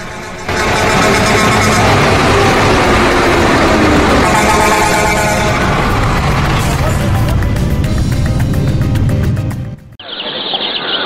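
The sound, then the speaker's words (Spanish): Car horns honk loudly over a dense rumble of idling engines and street noise, with faint chirping mixed in, before the din cuts off abruptly near the end. “hola bocinazo! ¡Bocinazo de lujo!”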